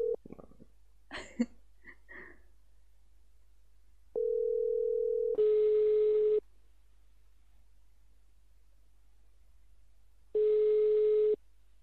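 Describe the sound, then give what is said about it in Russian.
A steady phone dial tone gives way to two spaced ringback tones, each about a second long and roughly five seconds apart, clear, after a few clicks and handling noises, as a direct phone number is called during a live broadcast. “У меня, по-моему, есть прямой номер, и попробуем позвонить просто по телефону.”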